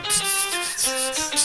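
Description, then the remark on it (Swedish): A shaker rattles out a steady rhythmic shuffle of bright, gritty bursts, layered over sustained melodic tones in a short musical passage with no voices. “Och just det, mycket shaker som bara”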